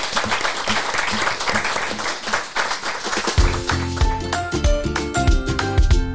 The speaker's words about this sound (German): Ein Applaus hier bitte.